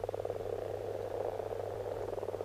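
A frog croaks in a fast, steady pulsing rattle that carries on without pause, moderately loud, with a low constant hum underneath and no voices.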